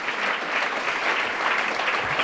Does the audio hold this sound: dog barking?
no